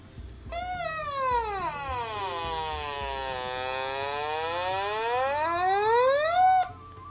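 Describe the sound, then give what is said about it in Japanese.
An Otamatone, a musical-note-shaped electronic instrument made by Maywa Denki, played by pressing the touch sensor on its tail, plays one long, buzzy electronic note for about six seconds. Its pitch slides down and then swoops back up with a whiny, wah-like, almost meowing quality, and no talking over it. “最近ね、オタマトーンっていう電子楽器にはまってるんですよオタマトーンあの明和電機さんが出してるオタマトーンっていう電子楽器があってでこれってあの何ていうかすごくお安いそんなに高いものではないんですけどもあのこういう音が鳴るんですね”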